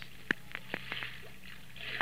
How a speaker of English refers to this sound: down at the river's edge, on a high knoll, sits Joseph, idly pitching pebbles into the water,